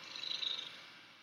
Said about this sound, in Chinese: 这个其实是猫咪很舒服的时候， 很放松的时 候的咕噜声，而且好像每个猫主人都可以辨识自己猫猫的声音，舒服的声音， 应该是说。